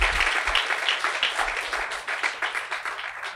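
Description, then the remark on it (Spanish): A church audience applauds steadily to give glory to God, many hands clapping in a dense, continuous patter that stays loud and even throughout, with no one speaking over it. “Pero como Cristo sí resucitó, dale un aplauso porque ese aplauso le glorifica a Él, ese aplauso le da gloria a Dios.”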